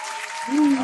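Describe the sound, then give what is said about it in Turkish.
A brief burst of canned applause, a dense crackle of clapping that swells slightly toward the end, with a voice murmuring underneath. “bir, e, bir sikko alkış efektim var ona”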